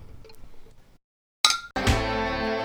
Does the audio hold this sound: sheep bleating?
no